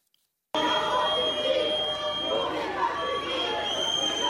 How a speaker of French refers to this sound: Une arrivée sous les sifflets, casserolades et huées pour Amélie Oudéa Castera. Syndicats et enseignants attendaient ce mardi matin la nouvelle ministre de l'Éducation nationale.